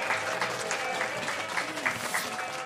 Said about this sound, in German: Begrüßt mich mit einem großen Applaus, Starter Queen Nina Queer.